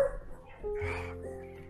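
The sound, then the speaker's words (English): A small two-pound chihuahua yips and barks in a quick, high-pitched burst, moderately loud, with a steady low hum underneath. “It's a little two pound chihuahua.”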